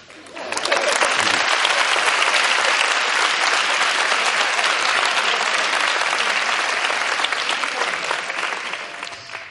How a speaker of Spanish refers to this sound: Eh, no me jodáis, no aplaudáis cosas que no piden aplauso, ¿eh? O sea, que me rompe el ritmo y yo quiero acabar prontico. O sea, no aplaudamos cosas a lo tonto.